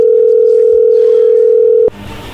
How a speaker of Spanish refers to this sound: A ver, ahí se está marcando, no haga ruido.